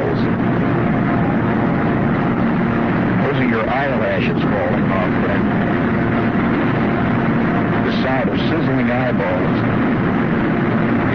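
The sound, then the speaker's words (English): A loud, steady roar of a steel mill open hearth furnace fills the whole stretch without letup, with muffled voices briefly surfacing beneath the din. “listening to the open hearth.”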